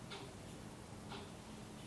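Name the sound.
wall clock ticking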